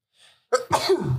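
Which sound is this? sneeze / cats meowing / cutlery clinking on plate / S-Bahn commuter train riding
sneeze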